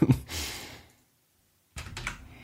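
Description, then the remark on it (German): A short burst of clicky computer keyboard typing as someone enters "AXP", then a pause of near silence before another quick flurry of keystrokes, fairly clear with no talking. “Jetzt habe ich AXP eingegeben.”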